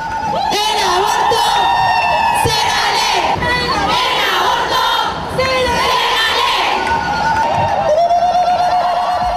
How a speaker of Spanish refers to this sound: Feministas de todas partes del continente han tomado las calles y exigido cambios, gritando consignas